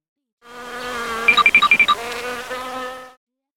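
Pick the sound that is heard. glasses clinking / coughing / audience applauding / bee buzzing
bee buzzing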